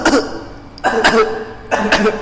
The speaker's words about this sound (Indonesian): semakin dia batuk semakin keluar